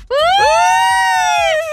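A loud emergency-vehicle siren wail sweeps upward and then holds a steady, bright tone for over a second before fading slightly at the end, with no talking.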